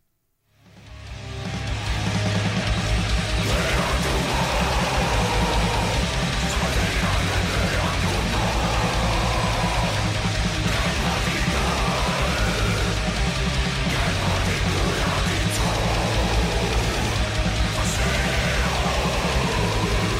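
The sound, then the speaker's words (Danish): A rock band's song inspired by Norse mythology plays loud and dense, swelling in over the first couple of seconds and then holding a steady, full-volume wall of sound with no talking. “lad os lige starte med at øh, høre det, øh, en lille bid fra øh, …”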